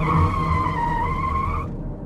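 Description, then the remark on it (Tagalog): A taxi's tires screech in a sustained high-pitched squeal for about a second and a half, layered over a low engine rumble, then cut off abruptly as the taxi brakes suddenly to a stop at a grassy dump of wrecked cars. “Hanggang sa biglang promeno ang taxi sa isang matalahib na tambakan ng sirang kotse.”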